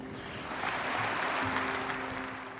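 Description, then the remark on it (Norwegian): Sustained applause from the Russian elite in the large Manezh hall in Moscow, gathered for Vladimir Putin's state-of-the-nation speech a year after the war in Ukraine began; a dense, even wash of many hands clapping at steady loudness throughout, with no voices standing out. “Det klappes i det store lokalet kalt Manesjen i Moskva.”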